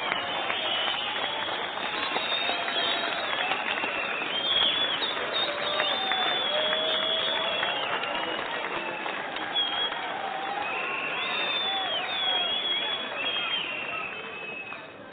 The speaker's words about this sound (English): Well, here we go thank you, everybody. Thank you for your generous applause. Yes, I thank you for that.